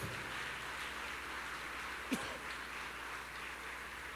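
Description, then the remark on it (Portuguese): An audience applauds the Lord steadily, the dense clapping forming an even, hissing wash for about four seconds, with one brief sharper accent midway and no one speaking. “Será que você pode dar uma forte salva de palmas ao Senhor?”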